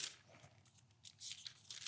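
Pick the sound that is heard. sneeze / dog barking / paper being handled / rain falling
paper being handled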